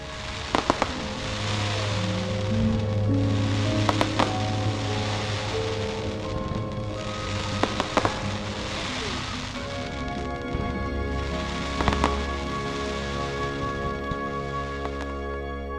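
A handful of sharp fireworks bangs from a large Guy Fawkes Night fireworks display in a park in Sheffield burst at irregular intervals over a steady outdoor wash of crowd noise, with sustained musical tones running underneath.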